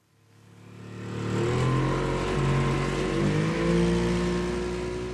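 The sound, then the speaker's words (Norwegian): An ordinary motorboat's 70 hp Mercury outboard engine swells up over the first second or so, then holds a loud, steady drone with slight shifts in pitch as the throttle changes, with no talking, on Eidangerfjorden in Norway. “Jeg er på vei i båten min med en 70-hjertes Merkri. en helt ordinær båt som lager helt ordinært med støy.”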